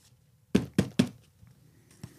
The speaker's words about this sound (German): Ich klopfe da so ein bisschen drauf. Ich will das nämlich nicht kaputt machen.